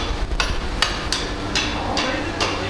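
A blacksmith's hammer rings against metal on an anvil in artistic blacksmithing, with a forge fire burning, in a steady series of sharp, bright strikes, about six blows at an even pace, over a low background rumble.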